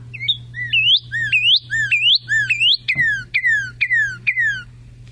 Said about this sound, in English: They do several calls. These cardinals do songs, I should say. It's fascinating to watch Cardinals perch and do their songs over and over again. They're just they get the loud, clear whistles. Just beautiful singers.